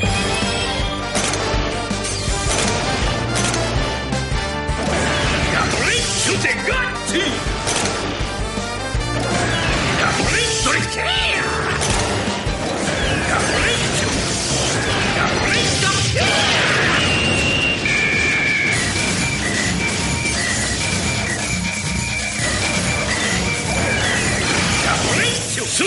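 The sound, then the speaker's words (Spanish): A loud, busy giant-robot combination sequence, dinosaurs combining into the robot Kyoryujin: clanking mechanical sounds, crashes and impacts with shouted voices, layered over driving music that stays dense and intense for the whole stretch. “Y así es como suena la combinación.”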